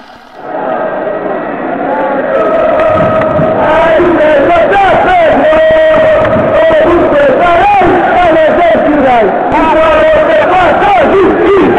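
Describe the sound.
A large crowd of Inter Milan football supporters sings a loud, sustained chant together, their many voices blending into a dense, rhythmic roar that swells after a brief softer opening and holds steady throughout.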